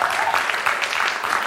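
An audience claps steadily for a moment, a dense, even patter of many hands with no pauses and no voices standing out above it.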